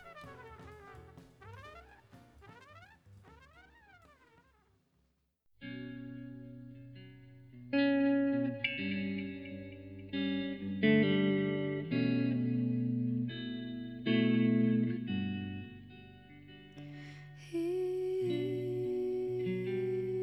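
A jazz quartet recording: warbling, effect-laden tones sweep up and down for a few seconds, then the full band enters with sustained chords, a steady bass line and shimmering high notes.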